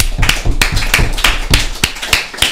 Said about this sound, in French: Et je vous demande donc, comme d'habitude, d'applaudir Pierre de Tirmont, qui est ici présent.